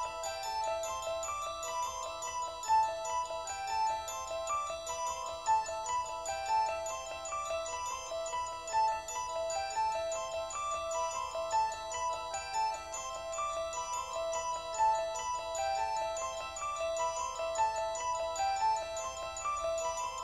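An instrumental piece of music used in the film The Exorcist: a repeating, bell-like keyboard figure plays a fast, looping melody in an odd, hypnotic meter, bright and steady throughout, with a low sustained tone underneath and no voices.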